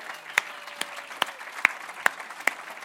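Audience applause: a steady wash of many hands clapping, with a few louder, sharp claps landing at an even, regular rhythm above the patter. No one speaks.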